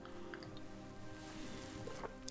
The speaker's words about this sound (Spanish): Y si ustedes me disculpan, déjenme tomar un poco de agua